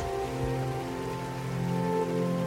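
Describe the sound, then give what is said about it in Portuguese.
Steady heavy rain pours down in a forest, a dense, continuous hiss with faint sustained tones running underneath, holding at an even level throughout with no voices. “The last sound I would like to hear before I die is a heavy rain in a forest.”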